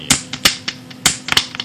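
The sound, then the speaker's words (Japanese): A plastic drink bottle being squeezed and handled up close, giving off a string of sharp, irregular crinkling crackles and clicks with no voices over it. “こういうのはずっと一個隣で聞こえてたんですよもう気が散るでしょもう映画が本当集中できなかったですよこの、えー、ペットボトルを映画館でずっと一個隣でこうずっとやってるわけですよ”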